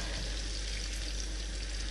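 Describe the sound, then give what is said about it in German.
A steady, dense sizzle as a few drops of water are added to asparagus frying in a hot pan, a continuous crackling hiss with no talking over it. “Aber dann tue ich einfach Tröpfchen Wasser dabei.”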